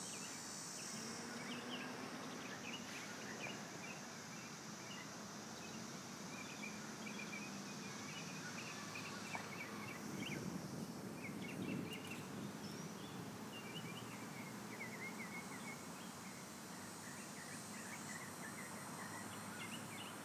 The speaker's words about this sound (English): So I hope you guys can hear that. I know for one thing, you should definitely be able to hear the birds. I'm not sure if you're able to hear the wind.